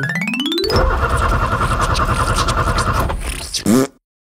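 A cartoonish engine of the Chuckle Truck whines upward, then chugs and rattles steadily for a few seconds before sputtering out with a springy wobble and falling silent, as the truck fails to start.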